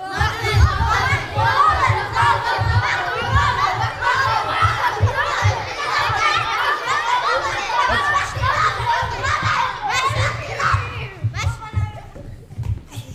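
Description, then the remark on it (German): A crowd of children imitating seals, making loud, overlapping barking and honking noises with their voices, continuous and noisy throughout, with a few higher squeals near the end. “Ich glaube, da machen ganz viele die Robbe.”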